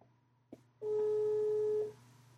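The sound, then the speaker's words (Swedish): A single steady phone ringing tone, loud, holds for about a second as a call connects, preceded by a brief click, with a low hum underneath. “Vi har, vi har ton.”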